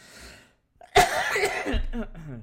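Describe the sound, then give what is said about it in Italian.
A sudden, loud cough bursts out after a brief pause, trailing off into a rough, throaty rasp and a voiced exhale. “eh, non so com'è, ma ho questa, questa, tossettina.”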